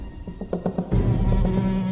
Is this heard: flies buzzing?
yes